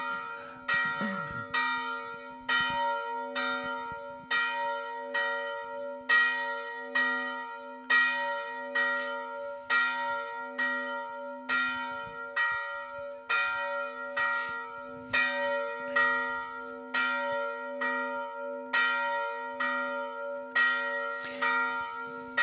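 Church bells ring out in a steady, continuous peal for the 1956 commemoration, strokes overlapping in a rich, resonant clang with a sustained hum beneath. Loud, with no voices present.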